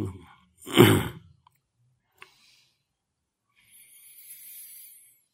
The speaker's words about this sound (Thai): ทำลมหายใจสักสามคู่สี่คู่แรงๆ เพื่อเปิดทางลม